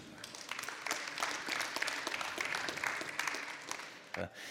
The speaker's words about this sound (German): Ich bitte euch einmal auf die Bühne. Großen Applaus für die fünf.